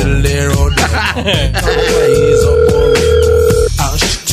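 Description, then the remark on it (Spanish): A telephone rings with a steady electronic tone as a call comes in to a radio show, holding for about two seconds, sounding over loud, busy background music and voices. “Oye, contesta Oye, el teléfono, hombre.”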